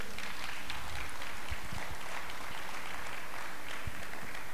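An audience claps for the Lord steadily for several seconds, a dense, continuous patter of many hands at moderate volume with no voices over it.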